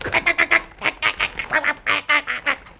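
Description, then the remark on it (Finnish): A parrot squawks in a rapid, harsh series of about a dozen loud, raspy calls, each short and evenly spaced, with no voices alongside. “Kyllä minä sille rääkkälinnulle näytän”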